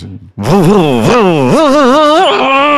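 The chainsaw from The Texas Chainsaw Massacre (Massacre à la tronçonneuse), as a video game sound effect, revs loudly, its pitch surging upward in several repeated bursts before settling into a steady high whine, with no talking.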